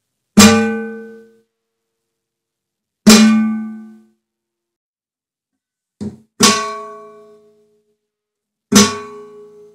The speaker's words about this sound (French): Donc ok, tu peux le faire à différents endroits. Ça crée aussi un autre effet. On dirait que ça fait un peu le son de cloche.